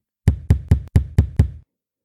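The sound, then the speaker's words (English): Six heavy, evenly spaced thumping knocks on a window late at night in a quick, steady rhythm, loud and low-pitched, then silence. No voices. “While the thumping continued on the kitchen window, a second thump began on the bedroom window.”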